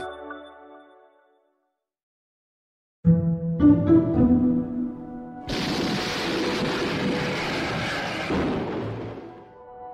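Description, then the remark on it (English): A nuclear bomb explosion, the bomb the US dropped on Nagasaki in 1945, erupts into a loud, sustained, broad roar that rumbles on for several seconds, preceded by a brief musical tone and a moment of silence. “That's the sound of a nuclear bomb, specifically the last time one was ever used in warfare, when the US dropped the bomb on Nagasaki in 1945.”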